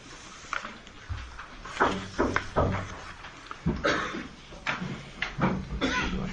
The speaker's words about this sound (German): Die Tür öffnet sich.